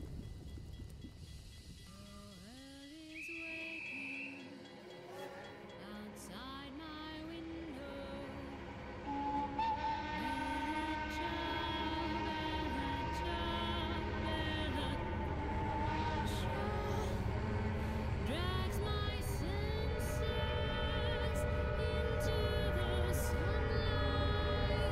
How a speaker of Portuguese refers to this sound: após algumas manobras da locomotiva dentro da estação, uh, o apito começa a soar. A locomotiva ela começa lentamente, vocês conseguem ver pelas janelas, deixar a Statia tinta.